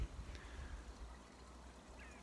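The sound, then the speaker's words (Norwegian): Steady low rushing of a flowing river, with faint bird chirps rising above it now and then. “og elven som renner.”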